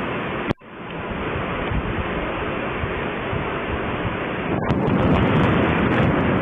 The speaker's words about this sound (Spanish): es que en la madrugada nos despertó a muchos chilangos un trueno que se escuchó horrible. Así que súbanle a la radio y ustedes en la tele vean porque este fue el trueno que nos despertó a todos en la madrugada. Escuchen esto.